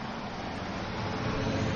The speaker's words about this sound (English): Now it's the water truck. or fertilizer, probably.